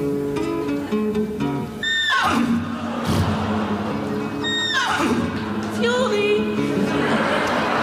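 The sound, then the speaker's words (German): A voice imitates the neighing of the horse Adalbert Karl Friedrich, giving three loud, shrill neighs that each slide downward in pitch, spaced a second or two apart, with a shaky, trembling quality. “Er hatte sich gerade drei an die Pfanne geschlagen und war gerade dabei, Gemüse zu putzen, als sein treues Pferd Adalbert Karl Friedrich zu wiehern anfing.”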